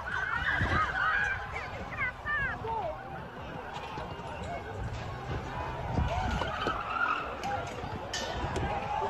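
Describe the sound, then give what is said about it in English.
Cars roar by fast, driving through protesters, with repeated sharp tire squeals over a constant noisy background of crowd voices and shouting. “Those were cars rushing through the protesters.”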